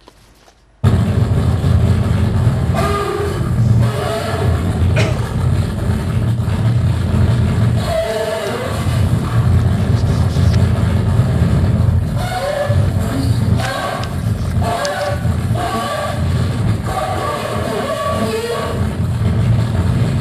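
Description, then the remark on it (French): A bassoon run through electronic processing, in a piece for bassoon and electronics, plays a loud, gritty, distorted line that sounds much like an electric guitar, sustained and buzzing in the low register for about twenty seconds, with no voices. “Dans cette pièce, euh, le compositeur disait que le basson devait euh, sonner comme comme une guitare électrique.”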